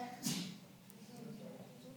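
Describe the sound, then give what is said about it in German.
A single sharp, loud sneeze bursts out near the start, followed by a quiet stretch with faint low murmuring in the background. “Gesundheit.”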